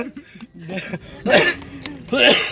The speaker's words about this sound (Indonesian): aduh batuk kan gue